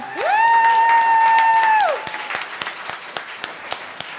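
A live audience applauds the designer of the event's T-shirts with dense, steady clapping, while a loud sustained high-pitched whoop rides over the first two seconds before fading and leaving the clapping to continue alone.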